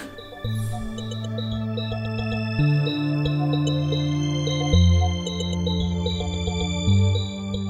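A song plays on its own, with a steady synth-driven groove, a bass line stepping between sustained notes, and a bright effected lead layered on top, loud and close with no talking.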